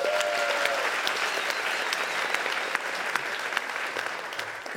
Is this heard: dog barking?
no